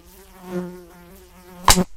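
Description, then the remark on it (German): A housefly buzzes steadily in a droning, wavering hum, then a sharp slap cuts in near the end as a plastic fly swatter strikes, followed by silence. “Fliegenklatsche, 1953 zum Patent angemeldet.”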